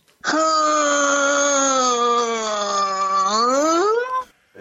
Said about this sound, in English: that sounded like a door opening. Maybe it was. it was a door Yeah.